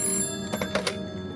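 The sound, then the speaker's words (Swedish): An old-style telephone bell rings in quick metallic bursts, clear, with no one speaking: anonymous harassment calls ringing at a family's home on Öland, Sweden. “Hos somliga familjer ringer det nästan dygnet runt.”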